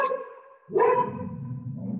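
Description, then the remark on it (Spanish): A small dog barks loudly and repeatedly, its sharp yapping continuing through most of the moment, with no one talking over it. “y de mi perrito que ladra y ladra y ladra.”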